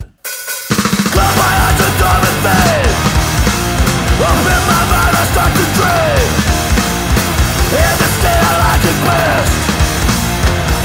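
After a split second of silence, a hardcore punk song crashes in, dense and loud, with distorted guitars, pounding drums and shouted, strained vocals running straight through to the end.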